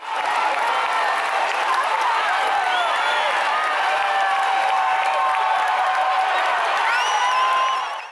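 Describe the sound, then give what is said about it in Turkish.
A large concert crowd at a farewell tour show in Auckland applauds and cheers steadily, a dense wash of clapping with many fans' voices rising in sustained chants of "we love you" and shouts throughout. “Alkışlar eşliğinde konser alanında Seni Seviyoruz sesleri yükseldi.”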